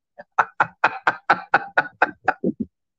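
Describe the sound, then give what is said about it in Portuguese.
A cat knocks down a Confiança picture frame: a quick, steady run of about a dozen hard knocks on a hard surface, evenly paced and fairly loud, the last two duller and lower before it stops. No voices. “pois é, foi gato que derrubou meu quadro do Confiança, fia de uma égua.”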